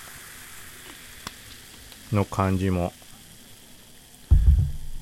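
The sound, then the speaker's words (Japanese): A carbonated highball fizzes with a steady, crackling hiss that runs throughout, broken by a brief bit of speech and a dull low thump near the end. “というかまた今これもハイボールだけど”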